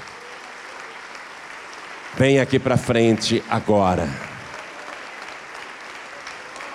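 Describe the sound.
Steady, dense applause at a church service fills the whole clip as a continuous rushing clatter, with a man's voice calling out loudly over it for a couple of seconds in the middle.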